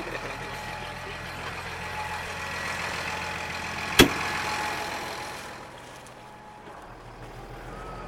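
A tractor engine rumbles steadily at close range with a sharp metallic clank midway, then the drone eases and grows quieter toward the end.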